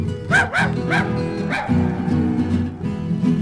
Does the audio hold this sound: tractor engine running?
no